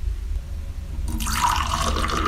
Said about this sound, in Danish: Her er to eksempler på vand, som jeg formoder er forskellige temperaturer, der bliver hældt op i en kop.